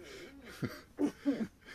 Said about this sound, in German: versucht gerade noch äh, immer noch ihr Husten zu unterdrücken.